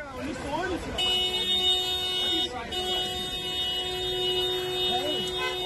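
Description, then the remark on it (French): Several car horns blare from dozens of stopped cars in long, overlapping held blasts that run almost without pause, loud, at a handful of activists kneeling in front of the cars, while voices can be heard beneath the honking. “Une poignée de militants sont agenouillés devant des dizaines de voitures à l'arrêt sous un concert de klaxons.”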